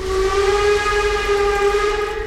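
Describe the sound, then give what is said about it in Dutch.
A steam whistle blows one long, steady note at half past six in the morning, loud and unbroken for a couple of seconds over a low rumble, with no voices. “Om half zeven ochtends dacht ik het geluid van een stoomfluit te horen.”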